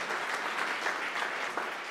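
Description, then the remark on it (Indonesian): An audience applauds for Jesus steadily, a dense wash of many hands clapping at an even loudness throughout, with no voices standing out above it. “Mau tepuk tangan buat Tuhan Yesus, saudara?”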